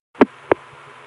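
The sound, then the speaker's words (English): Crossbar tandem telephone switching after dial pulsing: two quick mechanical clunks about a third of a second apart, heard over a faint steady line hum, with no talking. “That's a crossbar tandem sound.”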